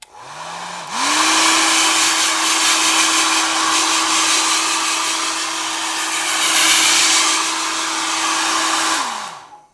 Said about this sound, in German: Und das war Auflösung. Ein Föhn. Das war ziemlich schwer, weil es sich auch ein bisschen nach einem Staubsauger anhört. Das stimmt.